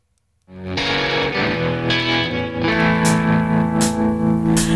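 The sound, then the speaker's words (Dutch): A soul song's instrumental intro kicks in after a brief silence, full and steady, with sustained warm chords, a slightly distorted guitar tone and crisp cymbal hits marking the beat. “we gaan luisteren naar een stuk dat heet …”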